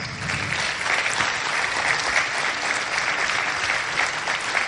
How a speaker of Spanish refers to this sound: Vamos a darle un fuerte aplauso a Dios.